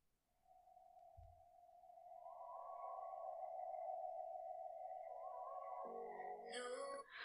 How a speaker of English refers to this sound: It's like the first 5 seconds are just instrumentals and it's so good. Listen.